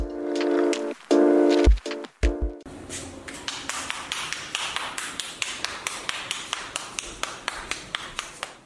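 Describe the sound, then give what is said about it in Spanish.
Hands slap and pat corn dough into round tortillas in a steady, quick rhythm of soft taps that repeat over and over, following a brief musical jingle at the start. “Ese es el sonido de las palmas de una mano, presionando la masa de maíz una y otra vez, hasta darle la forma redonda y el tamaño adecuado para luego colocarla en el comal.”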